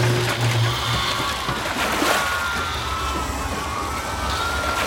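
Loud, continuous metallic groaning and crashing of a cargo ship slowly tilting further onto its side, with drawn-out wailing tones over a heavy rumbling roar and a sharper crash-like burst partway through; no voices.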